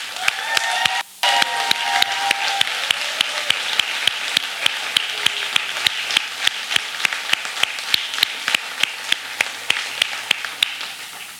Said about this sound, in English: And, and I don't want to just a round of applause. We need a standing ovation.